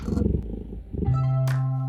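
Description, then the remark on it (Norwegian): Cats fighting in a radio studio: a cat growls in a low, rough rumble for about a second, then breaks into a long, drawn-out yowl that holds steady and loud, with a sharp hiss near the end. “Hvem sine katter er det som slåss?”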